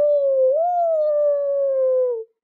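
wolf howling

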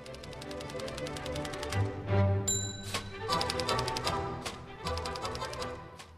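typewriter typing

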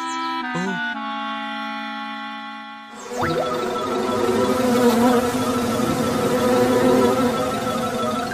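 swarm of bees buzzing

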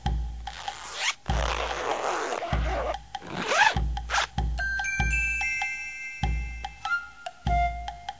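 zipper being pulled

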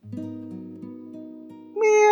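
cat meowing

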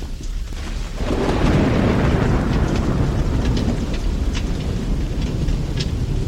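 thunder

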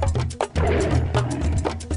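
lion roaring

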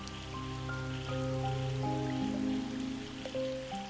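rain falling

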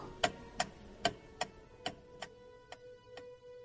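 clock ticking

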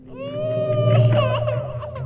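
baby crying

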